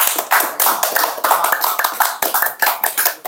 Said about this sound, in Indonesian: aduh jangan tepuk tangan jangan tepuk tangan sudah terima kasih sudah terima kasih terima kasih